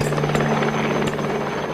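A helicopter flies by, its engine droning steadily with a constant low hum and a whining tone, rotor noise pulsing through the sound without a break.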